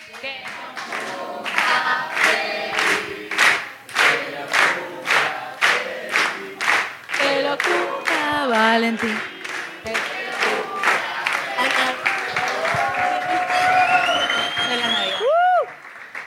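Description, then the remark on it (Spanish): A crowd sings happy birthday together, loud, with steady rhythmic clapping throughout, and cheers rising near the end. “Me Me parece que es el momento indicado para cantarle el feliz cumpleaños”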